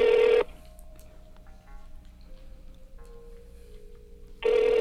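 A phone ring-back tone plays on an outgoing call returning a missed call, one long electronic ring at the start and another at the end, separated by a quiet pause with faint background hum.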